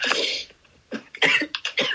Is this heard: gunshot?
no